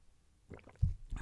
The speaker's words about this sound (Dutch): Zo, even een slokje water hoor.